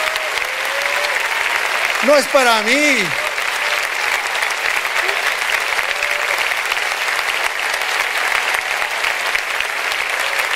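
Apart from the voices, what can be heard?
audience applause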